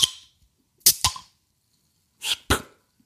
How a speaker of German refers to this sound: Wenn, wenn man ja. so eine Bierflasche aufmacht, dann kommt am Anfang so ein, ein Nebel, Nebel